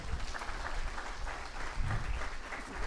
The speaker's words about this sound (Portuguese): Aplaude ele por isso.